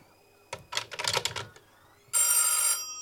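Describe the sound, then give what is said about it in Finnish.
A short run of clattering, rattling clicks as a telephone receiver is put back in place, then after a brief pause a single loud burst of an old telephone bell ringing, bright and metallic, lasting under a second with no one talking. “Jaha, se aloittaakin heti. Vastaisitko?”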